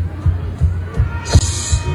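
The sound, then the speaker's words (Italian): Encouraging audience applause swells up partway through over a steady low rhythmic thumping and crowd murmur, the clapping dense and moderately loud by the end. “Applauso di incoraggiamento.”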